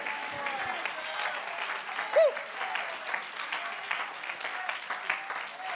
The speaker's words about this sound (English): Somebody clap your hands right now unto the Lord. Shout, Thank you, Jesus.